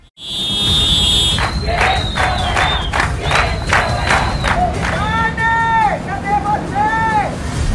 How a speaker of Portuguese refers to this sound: a manifestação do pessoal da classe artística é, em frente à prefeitura, onde a prefeitura encerrou seu expediente com esse buzinaço dos motoristas de aplicativo e também da classe artística pedindo, querendo trabalhar de volta.